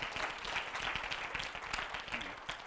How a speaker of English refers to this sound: Y'all got something out of it? Clap. Give it up. Give it up.